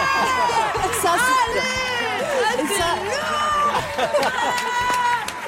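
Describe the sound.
A woman lets out a loud, triumphant shout and laughs over a roaring, cheering crowd at a music awards ceremony as she is announced winner of female artist of the year, the noise of the audience staying dense and constant throughout.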